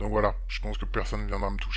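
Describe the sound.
A single voice speaks in French through a vocoder, its pitch flattened into a steady, robotic monotone, continuous over a low constant hum.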